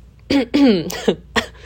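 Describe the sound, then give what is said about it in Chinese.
A voiced throat clearing with coughs: a short burst, a longer raspy rumble, then two more brief huffs, moderately loud with no talking. “嗯，为什么一开始要做一个咳嗽的动作呢？其实没有任何原因，纯粹是我想要清喉咙。”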